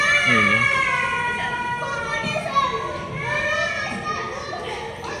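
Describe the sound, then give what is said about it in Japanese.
A lively outdoor wash of children's voices playing and shouting near an onsen inn in Hanamaki, several kids overlapping, continuous throughout with high excited calls and no clear words. “子供が子供に外としてる。”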